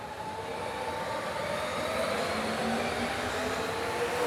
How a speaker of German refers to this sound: Kannst du eigentlich die Bahn hören? Nee. Aber quasi den, den Wind, ne? Ja. Für mich ist es kaum vorstellbar, wirklich nichts vom Anfahren der Bahn zu hören.